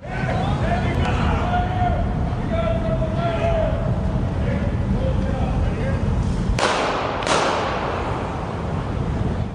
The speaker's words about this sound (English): So yeah, again, just the two gunshots, but I don't. Maybe there was a third somewhere else.